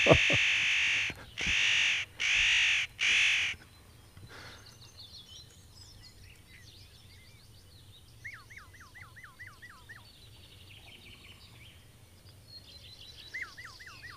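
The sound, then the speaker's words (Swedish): Calls of a Eurasian jay and a spotted nutcracker: four loud, harsh rasping screeches in quick succession, followed by quieter, repeated nasal calls and softer chattering, with no voices present. “Nötskrik och nötkråka.”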